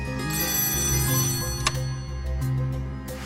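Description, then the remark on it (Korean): A telephone rings at night with a steady, sustained, bright electronic tone, continuing through the whole short stretch with a brief click near the middle; no one speaks. “그런데 다음 날 밤 현철 씨네 어머니한테 갑자기 전화가 딱 온 거예요.”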